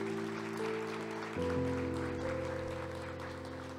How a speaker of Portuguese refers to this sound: Então, aplauda Ele, porque você precisa corresponder.